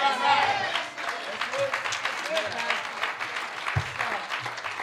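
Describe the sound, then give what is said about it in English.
A crowd claps in a dense, steady wash of applause, with voices shouting and cheering through it, loudest at the start and continuing energetically throughout. “Now that's worth you shouting right there.”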